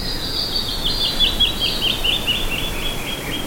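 A canyon wren sings a rapid run of bright, whistled notes that tumble steadily downward, over a constant rushing background noise.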